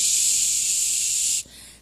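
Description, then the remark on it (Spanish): A voice imitates the water of a shower head being turned on, with a long, steady, bright "shhh" hiss that holds evenly for over a second, then cuts off sharply into a faint, quieter hiss. “Y, abrirle la llave a la regadera y... Shh,”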